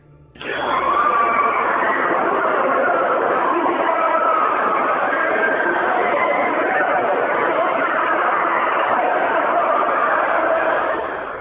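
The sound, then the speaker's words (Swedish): A dense, continuous chorus of many voices screaming and wailing together, loud and unbroken for the whole stretch, with a muffled, boxy quality like a horror-film soundtrack. “Det ni hörde här var alltså enligt den här vandringssägnen som fortfarande lever och mår väl på internet, ljudet av plågade själar som stektes i helvetets eviga eldar.”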